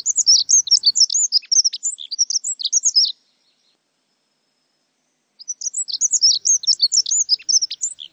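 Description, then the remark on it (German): A dunnock sings two rapid, high-pitched warbling phrases of jumbled squeaky notes, each about three seconds long, separated by a short silence. Clear, with no other sounds. “Ab und an könnten sie allerdings den dann doch bemerkenswerten Gesang der Heckenbraunelle hören.”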